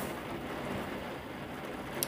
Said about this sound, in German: Und sorry wegen den Hintergrundgeräuschen, weil es regnet gerade sehr stark.